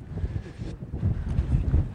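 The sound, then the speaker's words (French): Gusty wind on an exposed hillside among mountains buffets the microphone with a low, rumbling roar that rises and falls over two seconds, fairly loud, with no voices heard. “et là, il y a un petit, un petit bosquet parfait pour se mettre à l'abri du vent.”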